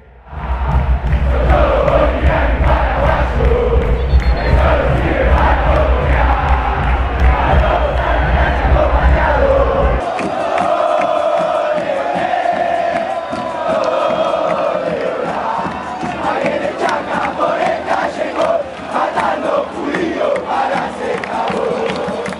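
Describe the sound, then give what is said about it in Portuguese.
A large crowd of Racing football supporters sings a xenophobic stadium chant in unison, saying that Bolivians live in the Boca neighbourhood where Boca's stadium is, loud and sustained throughout, with a heavy low rumble under the first half before the sound turns thinner and brighter. “Mas eu quero ouvir mais duas músicas é, dos é, outras torcidas para você ver é, a gravidade do assunto.”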